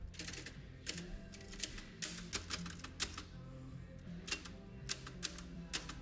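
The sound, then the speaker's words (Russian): Sharp, irregular keystrikes from a real mechanical typewriter in a coffee shop clack in quick bursts, fairly loud, over a low background hum with no talking, as someone types "Hello, how are you?" “здесь есть настоящая прям печатная машинка. Послушайте.”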